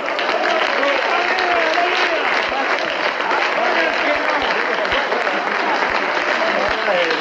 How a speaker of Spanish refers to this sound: Dale fuerte aplauso al Señor.